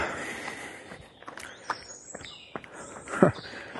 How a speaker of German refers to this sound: Wie schön, hier zwitschert es echt überall. Bin jetzt hier durchs Feld unterwegs gewesen.